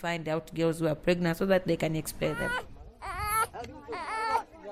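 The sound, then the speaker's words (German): A baby boy who has just woken up in his cot cries, starting with a rapid run of short, choppy sobs that build into longer, rising and falling wails, loud and insistent throughout. “Jacquelines Baby ist aufgewacht und schreit nach Aufmerksamkeit.”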